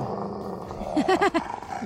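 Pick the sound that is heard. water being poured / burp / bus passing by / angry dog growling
angry dog growling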